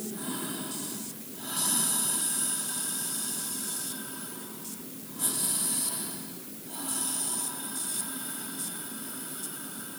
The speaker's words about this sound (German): Und wenn ich relaxen will, dann mache ich halt die Ausatmung länger. Also lass einfach den Atem beim Ausatmen viel länger rausgehen. Also es klingt dann so.